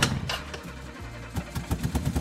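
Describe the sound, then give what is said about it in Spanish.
A motorcycle engine rumbles low and steady, then breaks into a quick series of throaty revving pulses toward the end, moderately loud, with no one speaking. “Que lo iba a celebrar con un vinito y que tenía mono de montar en moto.”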